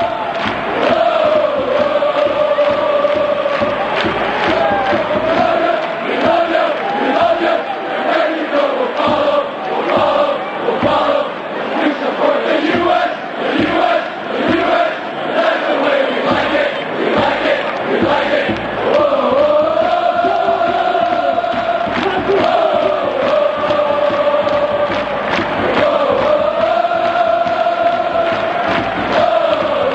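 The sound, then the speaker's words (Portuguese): A large crowd of football supporters sings a sustained, melodic chant in unison, the tune rising and falling steadily over a constant roar of voices for the whole stretch, loud and dense. “Então você já deve ter ouvido essa melodia essa, é. alguma outra, em alguma outra oportunidade.”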